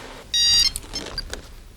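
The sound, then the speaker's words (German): Bob Andrews's mobile phone rings with one short, loud electronic tone burst, followed by a few fainter bleeps fading into quiet background; no one speaks. “Das Klingeln des Handys riss Bob aus seinen Gedanken.”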